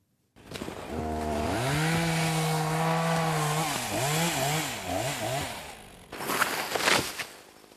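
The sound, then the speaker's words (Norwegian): A chainsaw felling trees drones at a steady pitch, then revs up and down in wavering bursts while cutting, ending with a short burst of harsh cracking noise as the engine drops away. “Å felle trær og lage papir av dem har vært en tøff bransje de siste åra, ikke minst for Norske Skog.”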